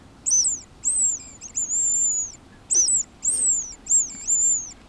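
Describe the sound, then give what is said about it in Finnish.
A hazel grouse call imitated on a small whistle: high, thin, sliding notes repeated in two short phrases with a pause between, clear, with no one talking. “Täällä on hei tämmönen pieni pilli.”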